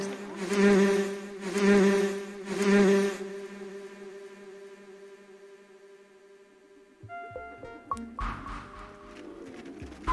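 A droning buzz like a bee swells in three quick pulses, then hums steadily before fading under some brief clattering and rustling near the end; the small noises are made by a creature as it backs away.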